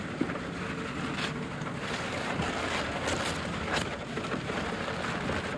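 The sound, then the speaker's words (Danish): A slit-open 25-kilo sack of milk powder pours into a floor hopper that feeds a bucket elevator up to a mixing machine, a steady, dense rushing hiss that holds evenly for several seconds with no voices over it. “Og der røg 25 kilo mælkepulver mere ned i gulvet.”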